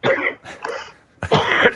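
A person coughs three times in quick succession, fairly loud, with the last cough the strongest and longest; no talking over it.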